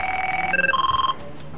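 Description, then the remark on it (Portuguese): An electronic telephone ring from a call to the 112 emergency number sounds alone, a steady tone that shifts pitch a couple of times with a fast warbling pulse. No one is speaking. “Só depois de avaliar a respiração, ligamos para o 112 para passar toda a informação.”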